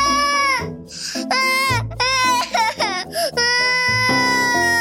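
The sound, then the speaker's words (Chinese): In a children's story, a voice imitates a little wolf sitting under a tree in a forest and crying loudly: several long, high-pitched wailing sobs with wavering, sliding pitch, broken by short gasping pauses, sustained for about five seconds. “于是他跑进森林里，坐在一棵树下放声大哭。”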